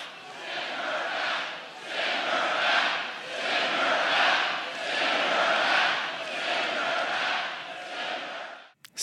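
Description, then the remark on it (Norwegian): A large crowd at a Donald Trump campaign rally in North Carolina chants the slogan 'Send them home!' in unison, the loud massed voices rising and falling in a steady repeated rhythm roughly every second and a half before cutting off abruptly. “Send dem hjem! ropte publikum.”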